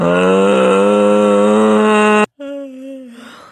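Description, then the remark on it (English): A long, loud voiced yawn, partly performed as an impersonation, holds steady for about two seconds, then breaks briefly before a shorter, softer yawning tone trails off. “Oh, was that your impression of Tina or were you yawning?”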